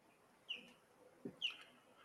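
Two distinct bird chirps ring out about a second apart, bright, against a quiet outdoor background with a soft low thump between them.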